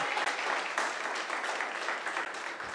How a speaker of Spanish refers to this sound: Aplauda al Señor. Vamos a aplaudir al Señor.